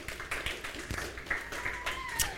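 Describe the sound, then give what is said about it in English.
Scattered, uneven clapping from a small church crowd applauding a community group moved from Wednesday to Thursday, a few sharp claps spread out over a couple of seconds, with faint murmuring voices and a brief high whistle-like tone underneath. “Everyone can clap for that.”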